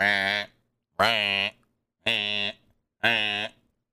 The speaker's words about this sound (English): Gable was whining and fell to the floor as the buzzer kept going off.